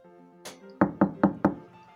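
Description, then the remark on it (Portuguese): Four firm knocks on a door in an even, quick rhythm, clear, preceded by a softer thud, with a faint steady tonal background underneath. “Mal teve tempo para se perguntar onde estava quando alguém bate na porta.”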